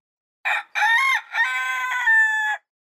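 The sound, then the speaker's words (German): A rooster crows loudly in a village, one long cock-a-doodle-doo in three surging bursts, harsh and strained, with no other sound around it. “Naduel erwachte durch das Schreien der Hähne im Dorf, die sich offenbar einen verbalen Krieg erklärten.”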